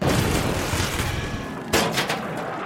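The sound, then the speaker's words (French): Loud, rumbling cannon fire, a cannon like the one made in 1511 from a huge statue by Michelangelo, with a continuous roar of booming blasts, then a sharp new explosion about two-thirds through that echoes out, with no voices. “En 1511, une immense statue réalisée par l'artiste italien Michel-Ange a été transformée en canon.”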